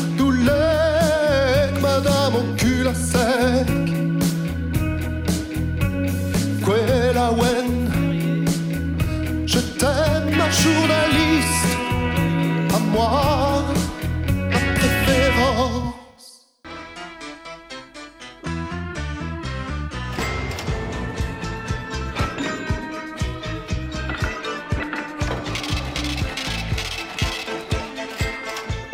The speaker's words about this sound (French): 11h36, vous écoutez Numérico, vous écoutiez le générique de C'est nous qu'on paye.